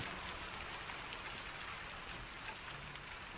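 Steady rain falls continuously, a dense, even hiss of drops on a surface with no pauses, fairly soft, and no voices.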